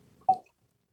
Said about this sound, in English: Oh, for people that uh, don't understand it, this the pop sound that you hear is our timer, and the yeah. the little chimes that you're hearing is like a minute warning, and then a, the final thing.